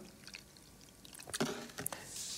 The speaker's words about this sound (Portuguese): Eu vou, eu vou derramar a água,